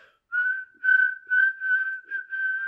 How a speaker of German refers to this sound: Wollen wir, wollen wir kurz was pfeifen, um ja. zu beweisen, dass wir cool sind? Ich weiß nicht, was du pfeifst, ich würde ja mitmachen.